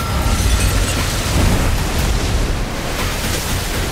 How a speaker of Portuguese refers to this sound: Uma explosão torrencial de água e vidros, ela cerca o interior do aquário com toda a força.